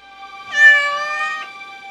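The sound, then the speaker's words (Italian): A cat peeking out from a corridor lets out a single drawn-out meow, clear, lasting about a second with a slight rise and fall in pitch, alone with no talking around it. “L'unico a rispondere è Felix, il gatto, che fa capolino dal corridoio.”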